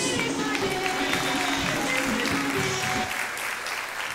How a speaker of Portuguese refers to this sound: Glória a Deus. Aleluia. Aplauda o Senhor, glória a Deus.